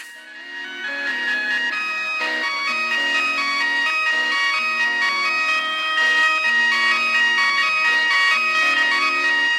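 An electric organ plays a bright, sustained melody with steady, overlapping chords in a 1960s rock song from 1967, loud, with no voices.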